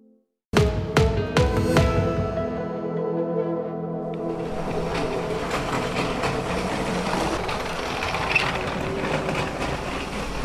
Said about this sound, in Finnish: täällä Attilandiassa kuuluu myös liikenteen ääniä. Sulla on täällä nimittäin kuinka monta junaa?